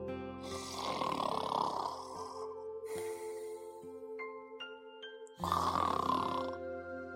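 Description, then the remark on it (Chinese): In a children's picture-book story, everyone has fallen asleep: three long, raspy snores rise and fade in turn over a steady, soft musical tone, with a short run of light chime notes between the second and third snore. “爸爸也唱起了小时候听过的摇篮曲，大家都睡着了，发出了呼呼的鼾声。”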